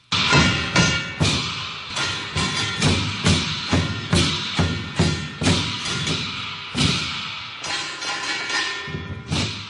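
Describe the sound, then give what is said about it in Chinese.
Brisk, steady drumbeats in the most typical rhythm of a Shehuo folk performance from Baoji, China, loud booming hits in a fast driving rhythm with bright crashing cymbals ringing over them, no voices. “大家啊，现在听到的这个节奏明快的鼓点儿呢，就是射火表演最典型的旋律了。”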